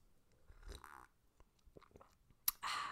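Quiet chewing of a soft iced biscuit dipped in a cup of tea, with wet mouth sounds and small smacks, then a sharp click and a burst of louder rustling noise at the end. No talking.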